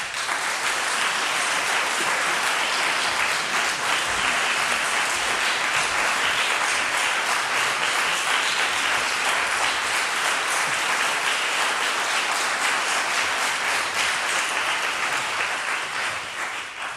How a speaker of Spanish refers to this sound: Vamos a aplaudirlos, los tenemos ya en el, en el escenario, pero vamos a recibirlos con un muy fuerte abrazo a …